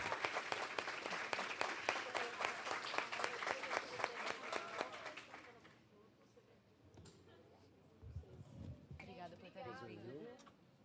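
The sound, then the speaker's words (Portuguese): An audience gives another round of applause with dense, steady clapping for about five seconds, then the applause fades out and voices talk afterward. “Gente, mais uma salva.”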